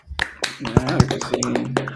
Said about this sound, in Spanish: Un aplauso para el gabinete, mano.